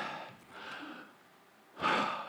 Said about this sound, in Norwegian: Trekk pusten dypt.